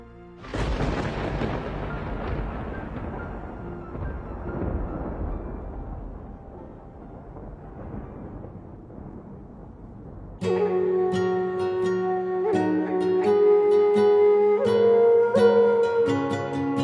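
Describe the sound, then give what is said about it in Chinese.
A deep rolling thunderclap from a summer storm booms out and slowly rumbles away over about ten seconds, then gentle music with a sustained melody takes over. “夏日一阵雷雨后，看到美丽的彩虹。”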